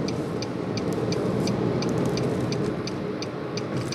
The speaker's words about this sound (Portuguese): Porque é trânsito. E o trânsito é isso aí trânsito. E eu moro numa cidade chamada Ribeirão Preto, a qual o trânsito é amplamente mal executado.